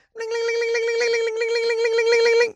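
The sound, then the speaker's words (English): A person vocally imitates a bank alarm going off with one loud, sustained wailing tone that wavers slightly in pitch for a little over two seconds, then cuts off abruptly. “That was the sound of the glass breaking and then the bank alarm going off.”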